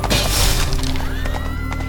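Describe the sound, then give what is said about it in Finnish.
A loud crash of a wooden lance splintering as King Henry II and the Count collide in a joust, amid a dense, noisy clatter, with a horse neighing and sustained rumbling through the two seconds. “Kun kuningas Henrik II ja Kreivi iskivät yhteen, Kreivin peitsi katkesi.”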